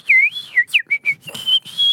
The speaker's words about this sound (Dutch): Ja, misschien fluiten. Ik kan je goed fluiten?